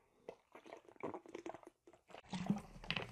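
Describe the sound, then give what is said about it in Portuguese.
Someone drinking water: a run of irregular crinkly, clicking handling noises, then a denser, louder stretch of sipping and swallowing at the end, with no talking. “Vou pegar uma água aqui.”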